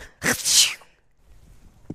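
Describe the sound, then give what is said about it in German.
A single stifled sneeze: a brief catch of breath bursting into a muffled, hissy release. After it there is near silence, broken by one faint soft sound. “Man kann doch nicht aus mir, wenn ich niese, einen doch, Schnipsel machen.”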